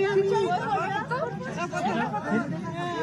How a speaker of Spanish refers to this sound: Vamos a escuchar parte del ambiente que se vivió en el momento en el que Chicharito atendía a los aficionados